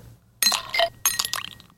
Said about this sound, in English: Ice in a cup. Ice in a cup.